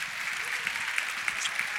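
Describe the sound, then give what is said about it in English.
A steady patter of clapping hands, dense and continuous, with a few sharper individual claps standing out above the crackling wash of applause. “Uh, Clap.”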